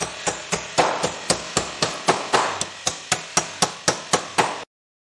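Steady hammering: about fifteen sharp, evenly spaced blows ring out close by, each with a quick decay, before stopping abruptly. No voices are heard.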